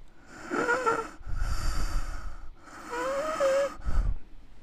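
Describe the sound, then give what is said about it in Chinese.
A voice imitates the deep, heavy breathing heard beside a bed at night: two slow cycles, each a raspy, faintly whistling inhale followed by a rough, rushing exhale, moderately loud with no talking. “然后我的婆婆听到在她的床的旁边。有一个深的呼吸，你可以描述一下。”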